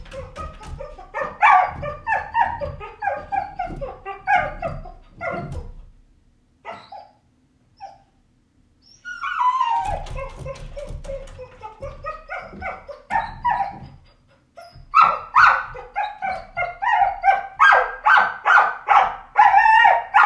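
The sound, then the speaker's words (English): Dogs bark and whimper in excited bursts, high yelps and whines mixed with sharper barks, pausing briefly before breaking out again into a rapid, insistent run of barking. “So, anyway, dogs. …”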